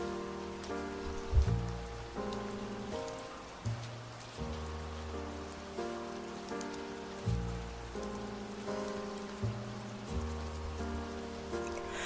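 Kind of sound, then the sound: nature, rain falling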